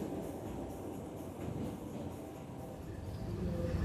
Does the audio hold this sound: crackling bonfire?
no